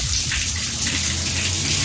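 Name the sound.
water sloshing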